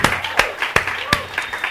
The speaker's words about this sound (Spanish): Un aplauso bien.